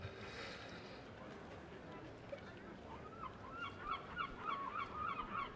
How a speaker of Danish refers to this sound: Ja, nu skriger fuglene.